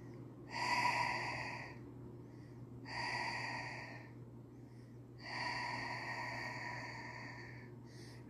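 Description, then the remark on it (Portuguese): Three breathy airflow sounds in a breathing exercise: a deep breath drawn in through the nose, then released through the mouth in three audible pushes, the last one long and drawn out, over a faint steady low hum. “Uma inspiração profunda pelo nariz, né? Soltando o ar pela boca em três tempos.”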